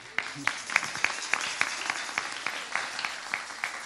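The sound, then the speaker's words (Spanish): An audience at a concert applauds steadily, a dense patter of clapping with a few sharper individual claps standing out in a loose, regular rhythm, at moderate volume with no talking. “de pie, por favor, un fuerte aplauso para Eli.”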